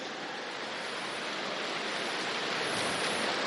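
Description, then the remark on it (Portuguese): An audience gathered in a large tent imitates an earthquake together, producing a steady, rushing rumble that swells slightly louder toward the end, with no talking. “Eu queria que todos vocês fizessem assim, ó. Vamos lá. Um terremoto. Mais alto para que o pessoal de casa escute.”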